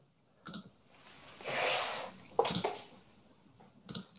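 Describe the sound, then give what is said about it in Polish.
Sharp mouse or keyboard clicks on a computer while trying to share the screen, in three brief clusters, at the start, middle and end, with a soft rustling swell between them and no talking. “Mm, przepraszam, jeszcze raz tu kliknę.”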